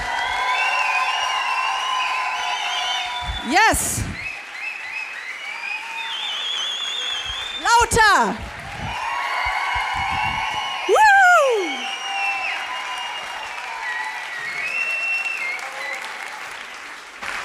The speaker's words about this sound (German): Insofern macht einen riesen, riesen Applaus. Ich will alle schreien hören. Hier ist Bettina Böttinger.